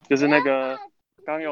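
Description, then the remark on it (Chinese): A speaker's young child lets out a loud, wavering, bleat-like cry in two bursts separated by a short pause, while an adult briefly speaks. “对不起，我小孩子有点吵。”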